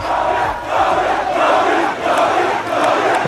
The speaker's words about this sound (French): Vous entendez là, Renaud, des supporters en furie au Liberia pour acclamer leur nouveau président, l'ancien footballeur Georges Weah, élu en 2017.